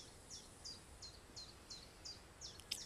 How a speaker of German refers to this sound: Aber man kann ja auch irgendwann abschalten und einfach nur so im Hintergrund die Vöglein hören